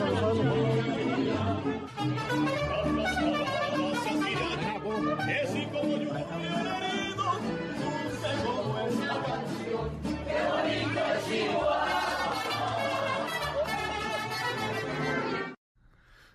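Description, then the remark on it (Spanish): A large crowd in Ciudad Juárez, Mexico, welcoming Claudia Sheinbaum, cheers and chants "presidenta" in loud, rhythmic unison, many voices overlapping continuously for about fifteen seconds before the sound cuts off abruptly. “La recibieron con mariachis, con porras, el clásico presidenta, presidenta, pues lo de siempre.”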